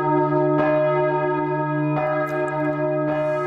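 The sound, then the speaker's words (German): The church bells of the St. Johanneskirche in Wernigerode ring out loudly, with fresh strikes landing roughly every second and a half over a long, humming resonance that never fades between them. “Schon bald wird Hendrik Hopfenblatt auch diese Glocken der St. Johanneskirche aus Wernigerode hochladen.”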